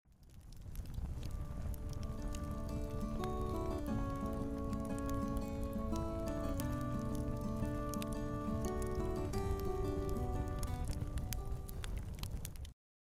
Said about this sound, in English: I think I hear a campfire. And I do believe I hear a campfire song.